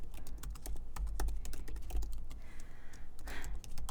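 Rapid, uneven clacking of keys on a computer keyboard, fairly loud, a steady flurry of sharp clicks over a low background hum with no voices.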